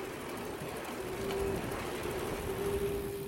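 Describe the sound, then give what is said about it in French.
Birds call outdoors around many ponds, with swans and ducks among them, over a steady wash of wind-like background noise. A low, drawn-out cooing tone rises twice above the hiss. No one speaks. “On est en train de pédaler là et on voit vraiment une multitude d'étangs autour de nous avec énormément d'oiseaux.”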